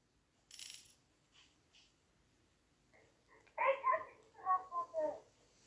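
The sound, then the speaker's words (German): Bright, quick video game coin-collect chimes ring out in a short cluster as four coins are collected at once, preceded by a faint sparkly blip and a couple of soft ticks. “Oh mein Gott, ich habe vier Münzen auf einmal gekriegt.”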